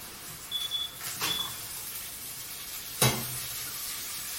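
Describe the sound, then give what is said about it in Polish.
Water with lemon juice poured gently into a hot pan of 400 g of shrimp after two minutes of frying sets off two sharp, hissing sizzle flares, one early and a louder one near the end, over a steady low frying crackle. No talking. “O, mija właśnie 2 minuty. Polewam delikatnie.”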